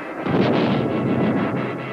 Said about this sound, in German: begleitet von einem lauten Knall, verursacht durch die Druckwelle, die das Flugzeug beim Durchbrechen der Schallmauer erzeugte.